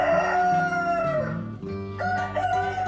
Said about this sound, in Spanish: ¡Es el gallo! En cosa de segundos, todos los gallos cantaban, anunciando el alba